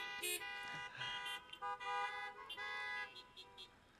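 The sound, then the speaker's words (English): A car horn honks repeatedly in approval during a church sermon, in a string of short and longer blasts, some overlapping, fairly faint, with no one talking over it. “yes, you can honk on that one.”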